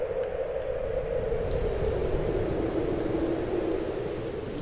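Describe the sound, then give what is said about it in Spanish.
Heavy rain pours down steadily on a tent, which is flooding; a dense, continuous drumming hiss with no voices, holding loud and even throughout. “Uy, está lloviendo muy fuerte y se está inundando la carpa.”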